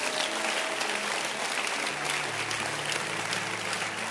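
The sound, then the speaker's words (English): An audience in a church claps their hands for Jesus in a dense, steady burst of applause, continuing for several seconds with no voices standing out. “So clap your hands for Jesus.”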